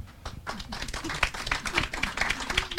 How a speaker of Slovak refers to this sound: Súťaž v potleskoch, ideme na to.